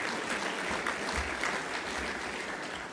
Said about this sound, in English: Give Bob Behning a round of applause.